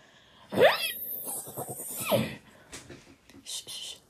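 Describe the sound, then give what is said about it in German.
Two loud whinnies from the horse Flocke, each a shrill descending call with breathy rumbling between them, followed by quieter snorts and rustling noises. “Flocke wieherte auch zurück”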